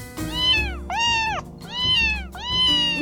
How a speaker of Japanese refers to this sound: もうそんなにいっぺんに言われても私猫語わかんないから